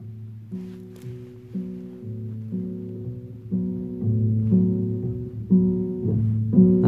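A song plays with a slow melody of sustained, held notes moving stepwise over a low accompaniment, gradually growing louder toward the end, with no speech over it.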